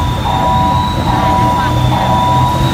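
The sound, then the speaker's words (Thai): A recorded female voice from an AI traffic system at the Arun Amarin intersection in Thonburi announces through a loudspeaker, in Thai, 'please do not park blocking the crosswalk, thank you,' after detecting a car stopped over the crosswalk. It is heard in bursts over steady, loud street traffic rumble with a faint high whine. “เป็นคลิปขณะที่ระบบ AI บริเวณแยกตรงนั้นเนี่ยจับได้ว่ามีรถจอดทับเส้นทับทางม้าลาย แล้วก็มีเสียงประกาศเตือนเป็นเสียงผู้หญิงบอกว่า กรุณาอย่าจอดรถขวางทางม้าลายขอบคุณค่ะ”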